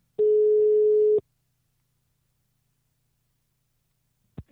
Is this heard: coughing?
no